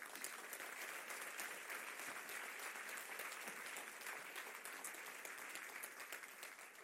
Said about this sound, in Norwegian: Jeg syns vi kan ta en liten applaus rett og slett, for, alle som har gjort det.